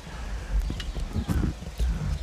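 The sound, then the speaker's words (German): A lawnmower starts up outdoors, giving a rough, low, sputtering rumble with uneven bursts as the engine catches and keeps running. “Es geht oh. Rasenmäher los, das stört uns nicht.”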